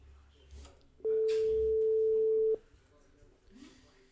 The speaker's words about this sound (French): Allez, ça sonne ou ça sonne pas Bonne question. On est censé sonner première sonnerie.